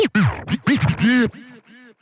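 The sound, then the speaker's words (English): An old chair creaks and scrapes in a rapid run of squeaky, rising and falling groans, loud at first, then trailing off into a few fainter squeaks. “was not getting a new chair, as you can hear uh, from, well, the old chair.”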